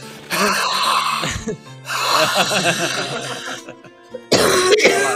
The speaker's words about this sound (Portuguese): Tá dá umas tossidas com, com ranho no meio que ajuda também. Nossa, se, pior que se eu forçar a tossida, eu tosso de verdade aqui, cara.